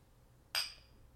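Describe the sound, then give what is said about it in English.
A single sharp clink of shot glasses holding Patron shots tapping together in a toast, bright, ringing briefly before fading over a quiet background. “I this is my first Patron shot in a mad in mad long, bro. Cheers.”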